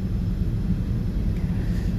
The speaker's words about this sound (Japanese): 久々のマイクなしでの配信プラスまさかの飛行機の中での収録えー、もし飛行機のこのエンジン音うるさかったらすいません